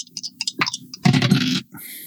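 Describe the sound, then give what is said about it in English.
Two six-sided dice are rolled across a hard tabletop during a tabletop game, a quick burst of clicks and rattles, fairly loud, settling after about a second on a six and a four, amid a few soft background sounds. “That's a six on one die, four on the others.”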